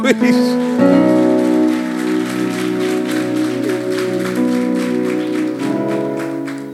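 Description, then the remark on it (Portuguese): An audience applauds Jesus during a sermon, clapping steadily for several seconds, a dense, even patter of many hands, while sustained keyboard chords hold underneath and shift once partway through. “Então aplauda Jesus.”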